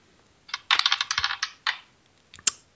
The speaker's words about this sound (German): So, also, dann würfel mal. Wir würfeln mit der ersten Zahl die Seite aus. Auf geht's.